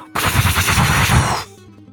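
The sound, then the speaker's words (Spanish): A loud, dense barrage of cannon fire, booming shots blurring into a continuous rumbling roar for just over a second before cutting off abruptly, leaving a faint low hum. “vemos un fogonazo de cañonazos.”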